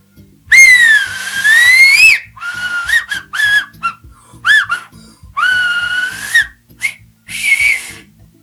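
Loud finger whistling, made with the index and middle fingers of both hands in the mouth and the tongue curled, in a string of shrill, rising and falling blasts, some long and sliding, others short and clipped, with breathy gaps between them and no talking.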